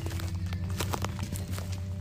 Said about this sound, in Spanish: Un paso bastante rápido. La entrada del bosque no es tan frondosa como ya les advirtieron que se pone más adelante. Entre crujir de ramitas, de hojas secas por las cuales transitan,